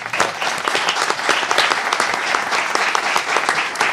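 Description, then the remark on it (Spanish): Steady applause from an audience at the Casa de Cultura in San Lorenzo del Escorial, a dense crackle of many hands clapping at a fairly loud, even level for the full four seconds, with no voices standing out. “Un aplauso, por favor, para Javier.”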